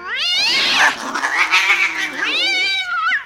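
Cats yowl and screech at each other in a loud, drawn-out fight, with wavering high-pitched wails rising and falling over about three seconds and no talking.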